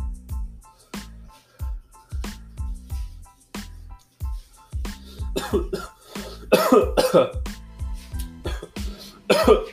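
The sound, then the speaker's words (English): A person coughs over and over on a dry throat after inhaling smoke, with harsh hacking bursts that start spaced apart and grow louder, rougher and more continuous toward the end. “and coughed it all up on a dry throat too.”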